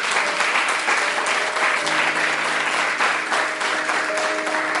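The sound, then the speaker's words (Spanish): Sustained audience applause for the absent 'diamonds' who gave up their places, a dense steady crackle of many hands clapping at an even loudness for about five seconds, with faint tonal hums and a few indistinct voices mixed in. “Así que yo quiero que les demos un aplauso a los diamantes que no están aquí presentes, pero que cedieron su lugar.”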